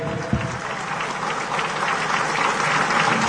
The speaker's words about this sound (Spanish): Palmas triunfales para nuestro Divino Padre Celestial